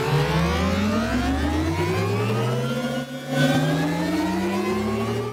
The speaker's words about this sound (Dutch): Zo'n optrekkende trein lijkt het wel. Ja, hè? dit is eh, een, een, voorbeeld van Audi. Audi was aan het zoeken naar eh, mhm. een, geluid voor een elektrische auto.